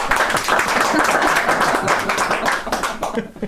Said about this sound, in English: I think uh, the other Nuffield scholars are in the room, so I think it's a round of applause from all the Nuffields, please.